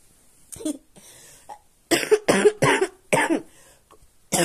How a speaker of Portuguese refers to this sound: Como podem perceber, estou com essa tosse terrível de cachorro morrendo. Mas ontem eu estava pior.